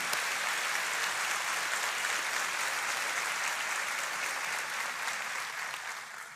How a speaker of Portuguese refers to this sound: E nós queremos, como igreja, nesta hora, honrar você e agradecer você com uma salva de palmas. Muito obrigado pelo seu trabalho.